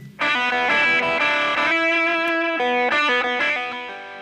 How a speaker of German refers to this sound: Die Slide-Gitarre die hauptsächlich auf der dritten und vierten Seite gespielt wird. Er hat ja, glaube ich, sowohl Les Paul als auch Stratocaster gespielt. Das ist das Thema dieser Songs und das klingt so.